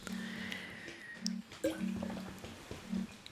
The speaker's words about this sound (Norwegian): Kan jeg fylle vann?